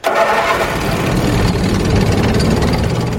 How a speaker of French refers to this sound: Il faut un moteur puissant. Le tracteur doit pouvoir rouler dans la terre grasse ou de la boue sans glisser.